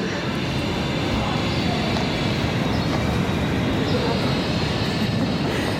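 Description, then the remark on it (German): Busy railway station ambience at Zürich main station (Hauptbahnhof), Switzerland, with a steady low rumble of trains and a continuous wash of crowd murmur and echoing noise, fairly loud and constant throughout. “Am Zürcher Hauptbahnhof treffe ich die Autoren Jahrgang 1964.”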